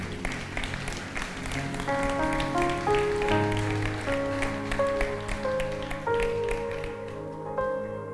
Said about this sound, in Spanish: Denle un aplauso al Señor, Él es bueno.